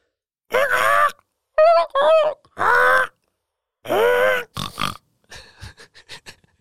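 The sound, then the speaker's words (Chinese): A human voice imitates a swan's call with a series of loud, nasal honks in uneven bursts, ending in a run of softer, rapid, clipped sounds. “从来没有学过天鹅的叫声，我们今天来学一下天鹅的叫声。”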